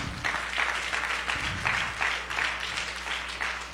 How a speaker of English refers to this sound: Clap your hands together for the Lord. Go.